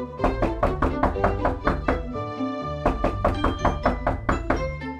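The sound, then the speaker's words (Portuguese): A postman knocks on the front door of a house called O Meu Casulo in a run of rapid, evenly spaced knocks, roughly three per second, with a brief pause in the middle before the knocking resumes, over a steady ringing tonal layer. “Mas era apenas o carteiro a bater à porta.”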